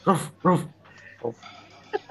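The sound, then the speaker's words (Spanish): A person's voice imitates a dog barking: two loud, harmonic bark-like bursts in quick succession, followed by a few softer, short vocal sounds. “Ya, es …, no, el, el, señor ladrido, el señor ladrido dice em, que es como, insisto, es como un ladrido.”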